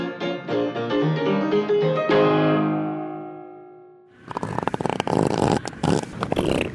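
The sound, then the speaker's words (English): A short musical jingle fades out, then a loud, raspy fart from an Australian elephant seal rumbles and flutters in rapid bursts for a couple of seconds. No one speaks. “all about the unusual, weird, and wonderful sounds that Australian nature makes, including fluffing elephant seals”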